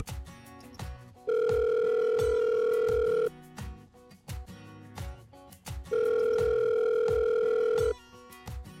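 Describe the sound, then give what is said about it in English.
A phone line rings out twice, each ring a steady two-second electronic tone with a pause between, heard over a rhythmic music bed as a call is being placed. “Well, giving you another call and get a little bit more information about A Door to Hope.”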